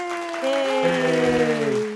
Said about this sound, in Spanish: Aplauso para ustedes. Yay.